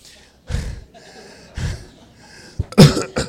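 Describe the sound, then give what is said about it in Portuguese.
Several sharp, loud coughs, with two spaced single bursts followed by a quicker cluster of coughs at the end, separated by quiet room noise. “É, vai tossindo aí.”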